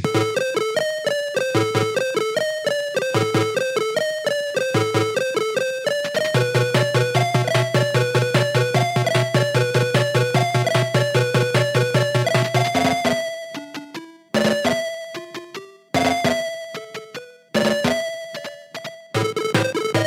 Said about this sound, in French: et eh ben, on va tout de suite démarrer donc avec tes musiques de jeux vidéo. On commence à l'ancienne avec ta première musique et oh la vache, ça va piquer.